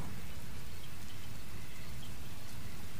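Steady, dense rain falls on a swamp, pattering continuously with a deep, rumbling low-end wash as it soaks into wet, marshy ground. No voices, just an unbroken blanket of falling water.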